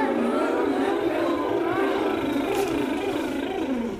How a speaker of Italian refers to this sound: Ma il grido della donnina non fu udito. Il pilota infatti aveva scelto proprio quel momento per mettere in moto il, mot- il motore del suo aereo.